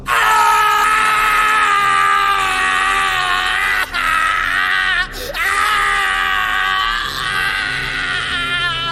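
A man screams loudly and continuously, a strained, harmonic wail held for several seconds with only brief breaks for breath, sounding close and anguished.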